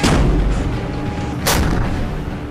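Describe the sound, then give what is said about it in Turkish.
Heavy Turkish military artillery fire against PKK militants in the Peace Spring and Olive Branch regions of northern Syria: a deep booming blast at the start, then a second sharp, bright report about halfway through, both rolling into a loud, rumbling low-end roar with no talking. “Milli Savunma Bakanlığı o anlardan birini paylaştı. Ateş!”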